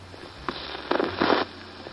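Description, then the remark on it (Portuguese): A record needle touches down on a vinyl LP with a brief thump, then scratchy surface crackle and pops flare for about half a second over a steady low hum, moderately quiet. “Ouve-se o chiado característico do vinil, os primeiros acordes soam.”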